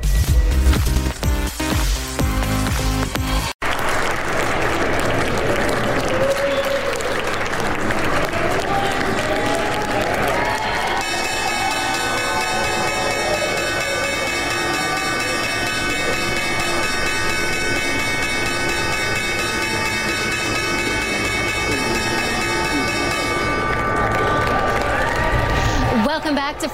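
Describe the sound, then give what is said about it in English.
Applause and cheering from a crowd build up, then the New York Stock Exchange opening bell rings continuously for about twelve seconds, in the last full trading week of 2019, its steady metallic clang carrying over the clapping and chatter. “That was the opening bell.”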